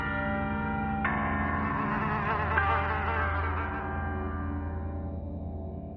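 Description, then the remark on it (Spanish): A fly buzzes steadily, its droning hum wavering in pitch as it hovers, with no voices present throughout. “La mosca parece inquietarse y el minutero se aproxima.”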